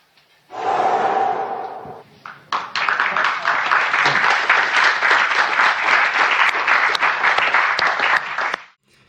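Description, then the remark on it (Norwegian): A crowd bursts into loud, sustained applause at the presentation of the first images from a new space telescope, with dense clapping that swells after a brief cheer at the start and continues steadily for several seconds before cutting off. “Bildene ble mottatt med stor applaus i nattnorsk tid da de ble presentert.”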